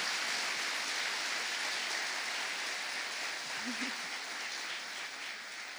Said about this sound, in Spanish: Ellos, ellos son encargados de que esto funcione y por eso yo quiero pedirles que les den un súper aplauso porque tienen un liderazgo maravilloso.